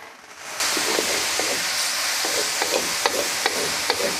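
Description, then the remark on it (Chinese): Japanese-style fried noodles being stir-fried in a pan in the back kitchen of a shop: greens and shredded carrot are fried first until fragrant, then noodles and sauce are mixed in. A steady, bright sizzle is broken by irregular scraping clanks of a spatula every half second or so, with no voices. “先仔细炒出香气，再加入面条和酱汁拌匀，每个步骤一丝不苟”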